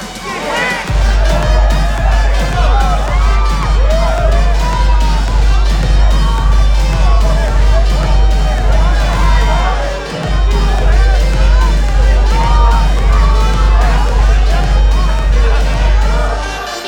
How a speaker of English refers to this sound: Wow, look at this crowd.